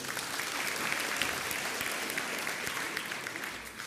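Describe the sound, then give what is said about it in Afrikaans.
An audience breaks into steady, sustained applause for the orchestra, a dense wash of many hands clapping at an even loudness for about four seconds without a break. “Of jy vir die orkes 'n lekker hande klap toe.”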